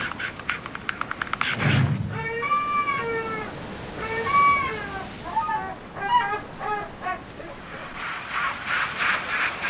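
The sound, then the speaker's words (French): A series of loud, hoarse, drawn-out cries of a pterosaur, like an enormous seagull, four or five calls in quick succession, with a rushing noise before and after, on a Pacific Ocean coast in North America. “Quel drôle de cri Jamais entendu. On dirait une énorme mouette qui sortirait d'une bronchite carabinée.”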